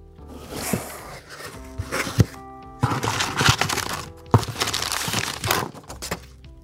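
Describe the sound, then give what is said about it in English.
Crinkling and crumpling of cardboard and paper as a Sips By custom subscription box for November is opened, with irregular rustles, tears and small knocks coming in bursts over several seconds, no talking. “I am going to open my Sips By custom box for November right now.”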